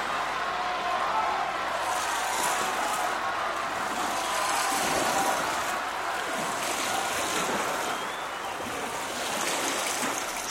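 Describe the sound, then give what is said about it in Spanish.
The Cosquín River in Argentina rushes and burbles steadily for about ten seconds, a constant wash of flowing water with brighter splashing ripples rising and falling, no voices present. “Si bien el río Cosquín apenas tiene 13 kilómetros, desde su nacimiento en la sierra y su consagración en el lago San Roque, es un protagonista fundamental de la cultura popular argentina.”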